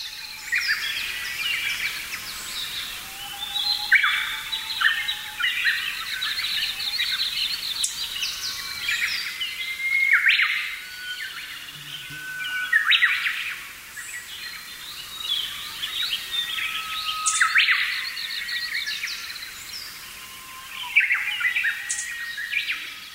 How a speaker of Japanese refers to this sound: 笹やぶはいいことばかりではありません姿を隠すことでメスへのアピールができないのですそのためウグイスは大きな声で鳴き続け健康なオスであることをアピールします笹が豊富な森ではウグイスがとても賑やかに鳴いていることになります